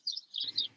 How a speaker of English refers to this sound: Oh, cute! I can hear the birds outside. Happy spring! I guess they want to be part of the podcast.